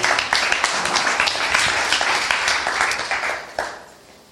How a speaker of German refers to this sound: Und bitte einen fetten Applaus für alle, die hier sind, egal wo sie herkommen. Wir müssen uns mal feiern.